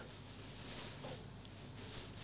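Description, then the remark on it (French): Faint, steady rain pattering against the window of a hotel room, a soft continuous hiss with scattered light taps, with no one speaking. “En fait, le bruit que vous entendez derrière, c'est parce qu'il pleut sur la fenêtre euh, de ma chambre d'hôtel, tout simplement.”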